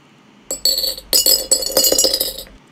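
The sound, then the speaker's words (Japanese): The cap of a glass-bottle Coca-Cola rattles inside a glass bottle, producing a quick, irregular run of bright, high-pitched clinks and jangles for about two seconds, with no voices. “これ結構いい音だなと思ってるんですけどこれは瓶の中に、えー、なんだっけなコカ・コーラの蓋瓶で飲むコカ・コーラあるじゃないですかそれの蓋をね入れてましたね”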